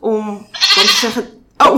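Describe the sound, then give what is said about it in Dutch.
A phone ringtone of a goat bleating, signalling a call from the phone owner's wife, sounds out loud, one long quavering bleat lasting about a second, followed by a brief voice speaking at the end. “Dat is mijn telefoon.”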